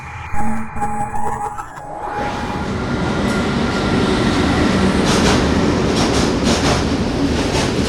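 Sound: train arriving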